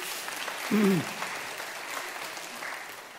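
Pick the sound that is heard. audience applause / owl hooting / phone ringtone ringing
audience applause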